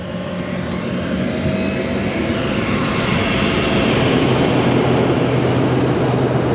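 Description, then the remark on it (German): A steady, loud jet engine drone fills an airplane cabin in flight, a broad constant roar with a low hum underneath and no voices. “So, mal ein kurzer Zwischenbericht hier aus dem Flieger.”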